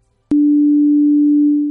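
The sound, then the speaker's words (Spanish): A phone app's light-channel detector, which senses the brightness of the surroundings, gives a single steady, pure electronic hum at a low-middle pitch. It starts abruptly and holds loud and unchanging for about a second and a half, with no talking. “Este canal de, la luz lo que me detecta es la claridad que hay en el lugar donde esté.”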